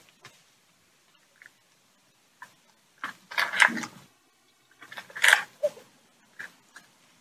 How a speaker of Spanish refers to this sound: La primera cosa que voy a hacer es quitarme la dentadura. Sí, suena fuerte, ¿eh?